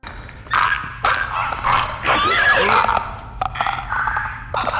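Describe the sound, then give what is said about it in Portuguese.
A monstrous clicker creature in a video game lets out a guttural, rasping growl that rattles with sharp throaty clicks, loud, sustained for several seconds with uneven bursts and no one talking. “O som dos instaladores é uma das coisas mais bizarras do game.”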